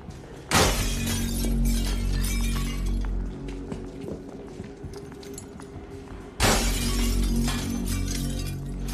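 Glass windows smash twice as a man's head is banged through one window after another, each a sudden loud crash followed by several seconds of ringing, scattering debris over a steady low rumble. No one speaks.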